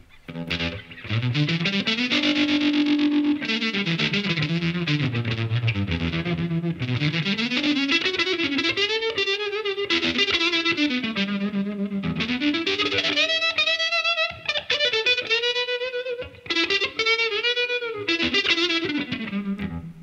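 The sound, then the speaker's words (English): A heavily fuzzed electric guitar played through a tremolo pedal and a fuzz pedal plays a loud, sustained melodic line with bending notes, its thick distorted tone given a wavering, pulsing movement by the tremolo, with no voices present. “Um, in fact, that with the fuzz combo is really.”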